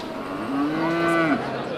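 A dairy cow gives one long, steady moo lasting about a second, its low, even pitch holding flat before dropping off at the end, heard alone without any talk.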